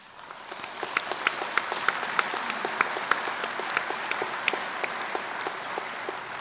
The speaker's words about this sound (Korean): 이 자리를 빌려 대한적십자사와 그동안 성원을 아끼지 않으신 국제적십자사 여러분 모두에게 다시 한번 큰 감사와 격려의 박수를 보냅니다.